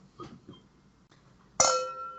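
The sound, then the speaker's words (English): A single bright clink of wine glasses touching in a toast, ringing on with a clear, sustained tone, preceded by a few faint, soft handling sounds. “Cheers to a hard discussion.”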